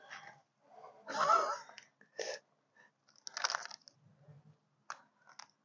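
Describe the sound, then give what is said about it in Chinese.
A mother dog crunches a biscuit in a series of irregular, crackly bites, the longest and loudest early on, followed by shorter snaps separated by quiet pauses, with no talking. “吃呢，他吃饼干。”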